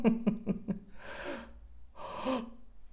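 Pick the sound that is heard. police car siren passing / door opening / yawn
yawn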